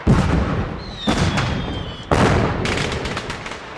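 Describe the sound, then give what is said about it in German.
A huge fireworks display in Berlin celebrating German reunification, bursting in a rapid series of loud booms and crackles, with a rising whistle of a rocket streaking up between blasts, all echoing through open air. “Überall wurden große Feste gefeiert und in Berlin gab es ein riesiges Feuerwerk.”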